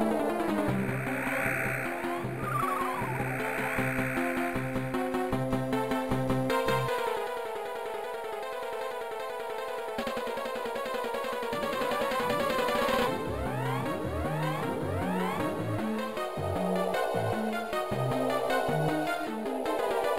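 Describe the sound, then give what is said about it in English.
A frantic, busy Game Boy Advance video game soundtrack plays loud and continuous, with rapid synthesized melodies over a driving, pulsing bassline that pauses briefly midway before surging back. No one speaks. “this track just screams like escape music.”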